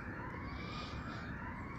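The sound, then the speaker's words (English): A steady siren wails continuously over a dense rumble of city traffic, fairly loud, its tone holding high throughout the short stretch with no one speaking; heard in a city at the Rooker Insel. “Now I might just I might just wait and see if this siren is going to is going to keep going”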